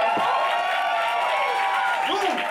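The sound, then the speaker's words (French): A live audience at a show at the Cabaret Berlin claps and cheers steadily, a dense wash of applause with whoops and shouting voices rising through it, loud throughout. “Donc, applaudissez-vous!”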